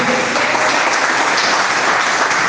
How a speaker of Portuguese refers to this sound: Pode se sentar. Batendo palmas e glorificando o nome dele.